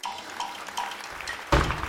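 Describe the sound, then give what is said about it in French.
Champagne pours with a steady fizzing hiss, then the liquid gushes more loudly for the last moments. No voices are heard. “Non une bière, euh, non du champagne plutôt. voilà, ça pétille.”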